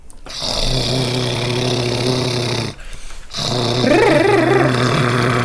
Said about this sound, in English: Then I usually do um, anything that's going to help um, warm up the articulator, so the jaw, the tongue, the lips. So things like um, like a little trill.